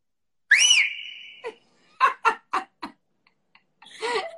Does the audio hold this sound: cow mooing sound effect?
no